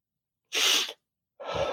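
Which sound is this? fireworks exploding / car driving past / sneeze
sneeze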